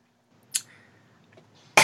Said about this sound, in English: excuse me. Um, so much build up for this little cough.